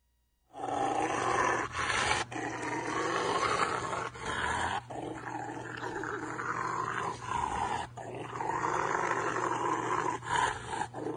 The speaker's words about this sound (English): It's a person giving a Rottweiler a bath, and the Rottweiler is not very happy. Listen.